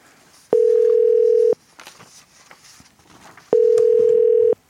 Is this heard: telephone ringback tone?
yes